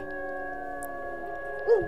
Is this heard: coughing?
no